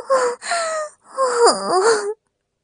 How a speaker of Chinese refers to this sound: 这一声脱口而出的尖叫声，让白雪梅从春梦中醒了过来。